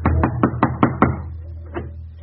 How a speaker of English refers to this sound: Berlin, Germany. A stormtrooper, revolver in his holster, calls at a German home. He knocks on the front door.